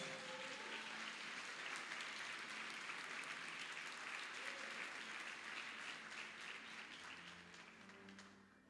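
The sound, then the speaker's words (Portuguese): An audience breaks into sustained applause for Jesus, a dense wash of many hands clapping at steady loudness that eases slightly toward the end, with faint murmuring voices beneath. “Dá um forte aplauso a Jesus.”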